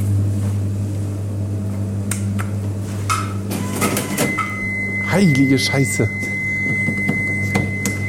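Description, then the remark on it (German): An old cash register gives off a steady, high electronic beep that holds for the last few seconds, over a low constant hum, some clattering and a man's brief exclamation. “Die piept, aber wir haben, glaube ich, unsere Ruhe.”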